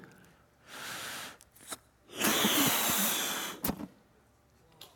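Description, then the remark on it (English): Two long, breathy whooshes of air blown into a balloon, the second longer and louder, separated by a short pause with a few soft clicks and rubbing noises. “One breath in the balloon gets an applause.”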